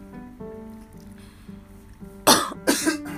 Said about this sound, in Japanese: ちょっとくしゃみしたら入っちゃうでしょ咳したら入っちゃうでしょ